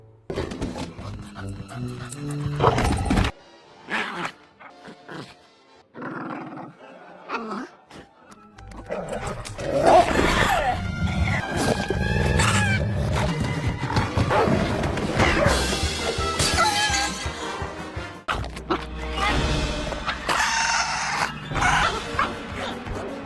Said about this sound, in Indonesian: pertarungan antara anjing dan kuda air kembali terjadi.